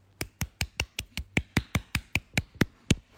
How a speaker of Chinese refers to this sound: 首先恭喜莱姆电台即即将录完一百期，鼓掌。